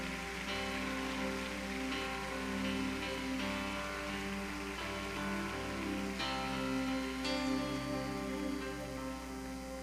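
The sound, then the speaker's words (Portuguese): A church audience applauds the name of Jesus in a steady, dense wash of clapping that holds at an even loudness for about ten seconds, over sustained keyboard chords, with no one speaking. “Aleluia, aplaudo o nome dele.”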